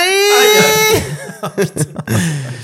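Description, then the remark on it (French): A person lets out a long, exaggerated wailing cry, then breaks into short, choppy sobbing gasps, loud. “Attends, arrête, c'est un podcast, on le voit pas quand tu pleures.”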